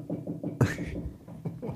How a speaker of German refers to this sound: das ist der Hund. Achso, ich dachte schon, wir sind zu laut und die Nachbarn klopfen. Aber so laut sind wir nicht.